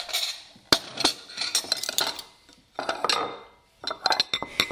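Dishes and cutlery clatter as they are set down, a busy run of sharp clinks and knocks in close bursts with brief pauses between, fairly near and moderately loud, with no talking.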